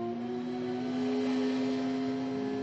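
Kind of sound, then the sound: vehicle, motor engine running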